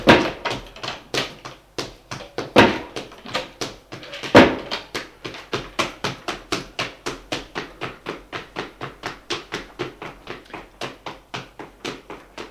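Rapid, steady thuds of people running on a hard floor in a house, with a couple of louder bangs near the start of doors slamming and opening. No voices.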